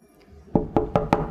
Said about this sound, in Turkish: Odaya girmek yok. Ana babanın odasına girilmez. Kapı tıklanır.